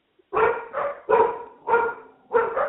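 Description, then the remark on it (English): Dogs barking wildly, a rapid run of loud, overlapping barks coming in about five bursts with brief gaps, no voices alongside. “Hold on, I got dogs going wild.”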